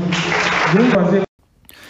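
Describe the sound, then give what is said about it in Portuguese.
Loud, dense audience applause for the president of the Assembly, deputy André Siliano, fills the first second, with a voice briefly rising over the clapping. It cuts off abruptly into near silence, followed by faint murmuring. “queria cumprimentar e queria uma salva de palmas muito forte para o presidente da Assembleia, o deputado André Siliano.”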